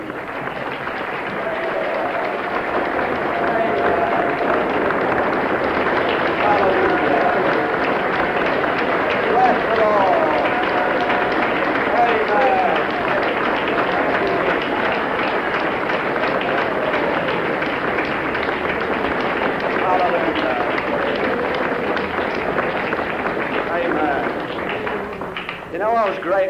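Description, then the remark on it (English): A church audience at a meeting claps steadily for Jesus for nearly half a minute, a dense, loud wash of many hands with a few scattered voices calling out over it. “And I think we ought to give Jesus a real hearty clap.”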